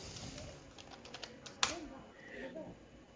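Rapid, light clicking of keys on a computer keyboard as someone types a reply to a chat message, a short burst of typing with one sharper tap partway through, with faint background murmur.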